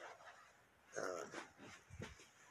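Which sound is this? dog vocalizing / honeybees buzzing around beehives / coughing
dog vocalizing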